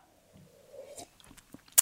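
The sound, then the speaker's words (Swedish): A quiet sip of coffee: a soft drawn-in slurp followed by small wet mouth clicks and a swallow, ending with a sharp click, with no talking. “en klunk kaffe emellan.”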